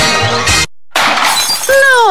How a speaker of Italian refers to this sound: No, il mio smartphone in frantumi.